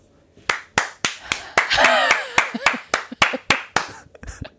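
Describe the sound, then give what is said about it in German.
A steady run of about a dozen sharp hand claps at a brisk, even pace, fairly loud, with a brief voice rising over them partway through. “du bist heute halt obsessed mit Klatschen, gell?”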